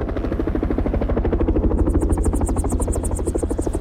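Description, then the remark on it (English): Two helicopters circle for a minute and then land on snow-covered sea ice, their rotors thudding in a fast, steady rhythm over a loud engine whine, with a bright high-pitched buzz joining partway through. No voices. “Both helicopters circle for a minute and then land about 50 yards away from a tiny, motionless figure on the snow.”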